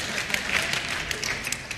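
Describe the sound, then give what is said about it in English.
Light, scattered golf clap from a small group at a church service on Father's Day, a soft patter of quick overlapping claps at a steady moderate level for a couple of seconds, with no voices over it. “A little golf clap, perhaps. Yeah, there we go.”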